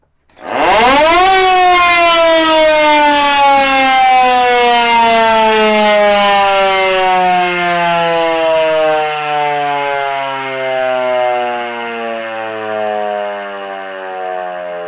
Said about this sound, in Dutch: een sirene, de brandsirene. Even opletten voor gehoorschade. Ik kan hem wel laten horen.